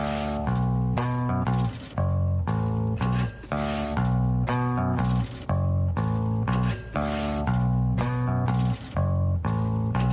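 A rhythmic loop of cash register clatter and clinking coins repeats steadily and loudly, with a low bass line running beneath the metallic bursts.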